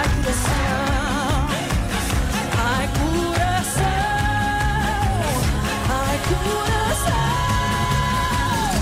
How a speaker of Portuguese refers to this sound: porque aquilo parece que ela teve um problema de coração, por isso ela começa, começa a música com um grande grito, não é?